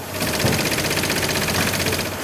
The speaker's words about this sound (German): So hört sich das hier an? Genau, also hier an diesem Automat, unsere modernste Druckmaschine im Haus, Breilo, wird von der Rolle gedruckt, äh, geprägt. Und was wir jetzt gerade hören. Ja, jetzt ist, wurde es gerade getackert.